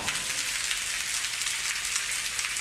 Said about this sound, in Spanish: Y aún más. Y más. Es un aguacero.